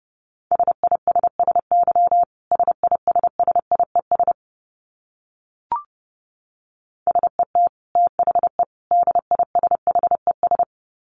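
Morse code at a brisk 30 words per minute: a steady mid-pitched tone keyed in quick dots and dashes, two bursts separated by a pause with a single faint click, no voices.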